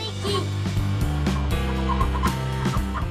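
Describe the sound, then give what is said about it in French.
A voice mimics a rooster's crow over an upbeat opening theme jingle with a steady beat, the calls blending into the loud, continuous music. “Cocorico Kikiriki Kikiriki”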